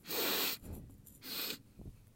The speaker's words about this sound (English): My God, it smells so good. I'm just gonna. Yeah. Did you hear me sniffing? Here, hang on, do a little closer.